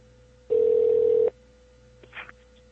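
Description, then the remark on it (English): A single steady ringback tone from an outgoing phone call to a mobile number sounds for nearly a second, fairly loud, followed by a brief faint click or rustle on the line. “I'm gonna try calling, uh,”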